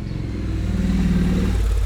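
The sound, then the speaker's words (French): A motorcycle engine drones, its low harmonic rumble swelling and rising slightly in pitch as it passes, steady and fairly loud throughout with no voices. “Voilà, une jolie moto qui passe.”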